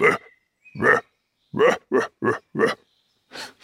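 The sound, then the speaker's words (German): A roe deer, startled by people at night in a forest, gives a series of about seven loud, hoarse, gruff alarm barks, spaced irregularly with short silences between them and no voices. “Und das hört sich an wie Hunde bellen, aber nein, es sind Rehe, die schrecken.”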